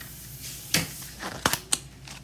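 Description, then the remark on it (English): Three sharp knocks on a little front door, as Mr. Wolf knocks at the three little pigs' door in the story, one on its own followed by a quicker pair, crisp and fairly quiet against a faint hiss, with no voices. “Knock, knock, knock. Who's that knocking at our little front door?”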